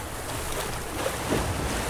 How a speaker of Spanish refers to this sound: Hay como mucho viento, ¿viste? Hay, hay mucha ola, mucho viento, pero da, ¿eh? Está bueno.